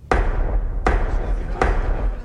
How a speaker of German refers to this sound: mir fällt jetzt keine andere Szene ein, wo man gegen die Tür hämmert